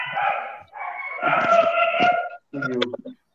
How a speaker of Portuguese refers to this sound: Começou os cachorros do Rafa. Começou.